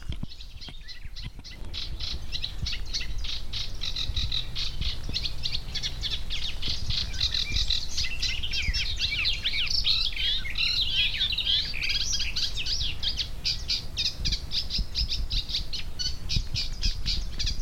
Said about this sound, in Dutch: kan er natuurlijk helemaal naast zitten. Het kan ook een kleine karakiet zijn. Dat is ook mooi, dat is een winterkoninkje.